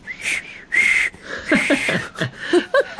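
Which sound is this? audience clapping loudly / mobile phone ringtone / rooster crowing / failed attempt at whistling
failed attempt at whistling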